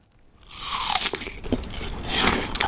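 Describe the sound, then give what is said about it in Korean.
A crisp, juicy crunch as teeth sink into an apple, followed by a couple of seconds of wet, crackling chewing with a few sharper snaps. No one speaks. “사과 이렇게 하루에 하나 정도 먹으면 뭐 의사를 만날 일이 없다고 뭐 그런 얘기도 있죠.”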